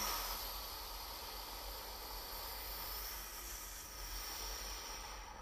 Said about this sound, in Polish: Natomiast gdy skupiasz się też na oddechu, bardzo wolno bierzesz wdech. Chociaż na sekundkę przytrzymujesz jak najdłuższy wydech.